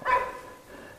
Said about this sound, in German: Na, und der, der, Hund hat eine sehr feine Nase. Ja. Da kann der Pferde immer noch folgen. Das ist, das ist auch der gleiche Hund von vorhin.